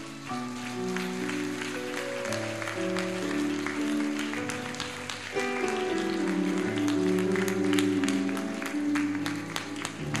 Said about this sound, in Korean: 아버지 되시는 하나님께 우리를 사랑한다 하시는 하나님께 큰 박수를 한번 보내드립니다.